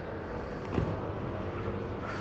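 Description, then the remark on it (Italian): A city bus arrives, its low engine drone and road noise steady and loud, with a brief thump partway through and no voices. “Sarà meglio che preparo la mascherina che sta arrivando l'autobus, secondo me tra poco.”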